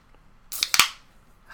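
A drink can cracks open: a couple of quick metallic clicks followed by a sharp pop and a short, fading fizzy hiss, fairly loud against a quiet background with no talking.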